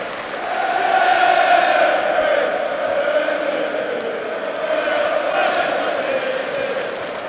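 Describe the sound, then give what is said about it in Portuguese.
A large football stadium crowd of Chelsea supporters at a final roars and chants steadily, a dense wall of voices with rising and falling swells and no clear breaks throughout. “Mas sintam realmente a torcida do Chelsea está forte aqui.”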